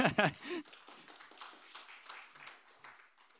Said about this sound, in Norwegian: Tusen takk. Nå kan du få sette deg. Ja, en stor applaus, da.